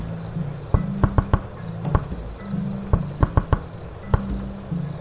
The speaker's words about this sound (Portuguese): quando escuta algo bater na, na porta, como se estivesse fazendo um, um código que tu entende.